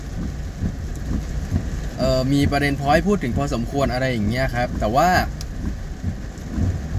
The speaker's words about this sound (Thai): แล้วก็ฝนตกอย่างที่บอกไปแล้วนะครับ ฝนตกหนักพอสมควรเลย